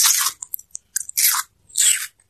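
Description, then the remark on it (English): A turtle crunches and chews a watermelon carved into the shape of a boat: three loud, wet crunchy bites in a slow rhythm, separated by small clicks and smacks, with no talking. “No turtle devouring a watermelon, carved turtle into a, the shape of a boat.”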